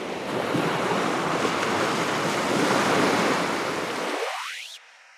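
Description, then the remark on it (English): Loud surf pounds a shoreline in a continuous churning roar, with no voices, before the rumble thins out and drops away abruptly near the end. “We hear fragments of this early Earth today in the spasms of earthquakes and the sounds of wave pummeled seashores, windy mountaintops, rainfall, and lively rivers.”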